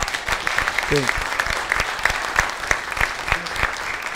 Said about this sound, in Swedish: Mina damer och herrar, en stor applåd.